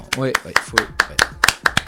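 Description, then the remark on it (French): Steady hand clapping in applause for a tourist office, about ten sharp claps in a quick even rhythm, with a voice briefly talking over the first few. “On les applaudit.”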